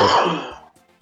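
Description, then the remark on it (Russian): A single loud cough, a harsh throaty burst that fades out over about half a second, followed by quiet with faint background noise and no talking. “Так, э, кто-то кашлянул”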